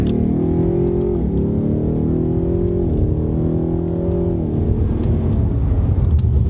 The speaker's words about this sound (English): that was just Richard uh, demonstrating what a five litre V8's capable of. Turns out in the curvy bits, a Mustang's just delightful.